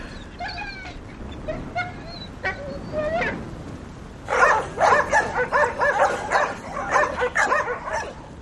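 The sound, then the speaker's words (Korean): Several dogs in the direction of the village yelp and whine at first, then break into a chorus of overlapping barks, coming in steady, rising and falling bursts with no voices present. “늑대보다 강하다는 도사견의 죽음을 본능적으로 직감한 듯 마을 쪽에서 개들이 짖기 시작했다.”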